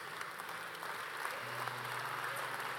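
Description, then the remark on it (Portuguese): Steady, dense applause from a large audience standing and clapping for God, a continuous crackling wash of many hands that stays loud and even throughout, with a faint sustained tone underneath. “Se você é um vencedor, fique em pé aplaudindo a esse Deus maravilhoso”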